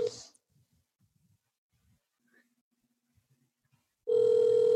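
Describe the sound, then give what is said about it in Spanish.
Ringback tone of an outgoing phone call: a loud, steady electronic ring cuts off at the start, a few seconds of near-silence with faint clicks pass, then the ring resumes strongly. “Te voy a llamar de nuevo, no contestes, que quiero que, escuchen en, un podcast tú la mierda de máquina tuya.”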